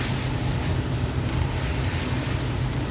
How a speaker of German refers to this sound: Außerdem ist ideales Urlaubswetter, also total verregnet gerade. Dass im Auto ein bisschen stickig ist, kann ich euch die Geräusche nicht ersparen. Wenn ich hier so durch die Pfützen fahre.